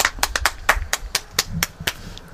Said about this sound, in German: Ja, ich höre es schon. Hört man das? Es ist 18 Uhr. Ach, der Wind geht ein bisschen, es tut mir leid. Aber die Leute klatschen. Das finde ich immer sehr, sehr schön. Da klatschen ja, schau, klatschen.